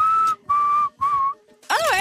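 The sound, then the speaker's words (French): A person whistles three sustained, steady notes in a row, each lasting about a quarter second, followed by a quick warbling trill that rises and falls, clear with no talking. “C'est quoi que vous sifflez tout le temps”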